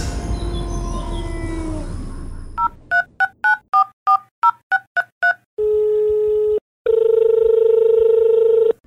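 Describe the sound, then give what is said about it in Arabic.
A rapid run of about eleven two-tone keypad beeps as a phone call to a doctor who is an animal health expert is dialed, followed by a steady telephone line tone that stops briefly and resumes, after a short tail of a howling, tonal sound at the start. “لكن الآن دعونا نتصل بالدكتور”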